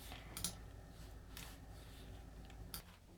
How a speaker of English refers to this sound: And God, I need to stop clicking. Click, click.